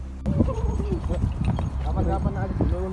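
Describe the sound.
Steady clip-clop of horse hooves pulling a ceremonial carriage with jingling bells, a rapid run of sharp knocks lasting throughout, with voice-like tones murmuring underneath and a busy, cluttered background.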